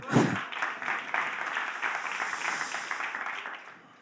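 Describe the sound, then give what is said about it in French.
A burst of audience applause, many hands clapping in a dense, steady patter at moderate loudness for about four seconds before tapering off slightly at the end. “On l'applaudit.”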